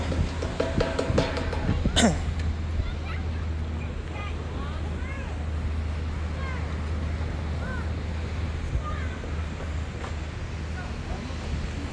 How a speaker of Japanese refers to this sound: 聞こえてますでしょうかちょっと波の音がうるさいかな波の音をちょっと BGM にねライブしたいなと思ってちょっと今ビーチに来てます声聞こえてますかねちょっと波の音がうるさいと聞こえないかもしれないですけど